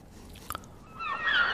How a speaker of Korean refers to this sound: 네. 아유, 시원한 소리예요. 그죠? 갈매기 소리입니다. 갈매기. 오늘 보물소리입니다.